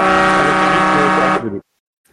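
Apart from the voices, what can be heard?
boat horn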